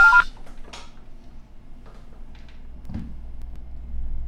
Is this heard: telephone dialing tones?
yes